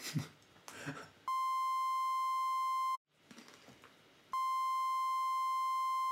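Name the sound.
censorship bleep tone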